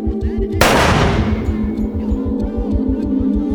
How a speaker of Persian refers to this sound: او قبل از اینکه هجیر متوجه بشه چه خبره گردن هجیر رو میگیره به اون میچسبه و تیری شلیک میکنه